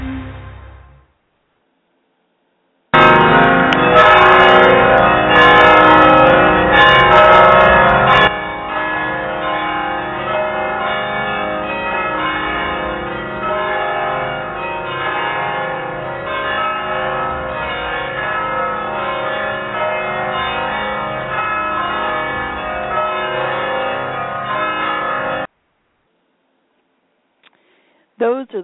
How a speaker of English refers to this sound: the glorious bells ringing at the San Juan Capistrano Church, the mission there at San Juan Capistrano, and I happened to be there when uh, there had been a wedding and they were ringing the bells. And I got a chance to uh record it.